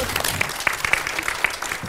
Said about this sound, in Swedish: Tack så mycket. En stor applåd för dig.